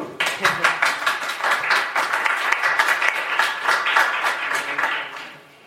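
An audience breaks into applause, a dense, steady patter of many hands clapping at once that holds for several seconds before trailing off at the end.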